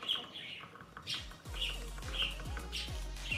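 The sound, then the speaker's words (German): A parrot calls repeatedly in a steady rhythm, about six sharp, bright squawks in a few seconds, with low swooping sounds underneath and no one talking. “Ey, Bro, wer hat diesen Papagei im Hintergrund?”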